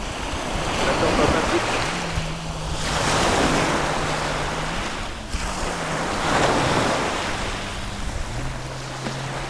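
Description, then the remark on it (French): A low motor drones steadily beneath loud crashing surf and gusting wind, its pitch stepping up and down, from either a plane or a jet ski. “tu prends du son, as soit un avion, soit un jet ski. Bon. Il y a du moteur partout.”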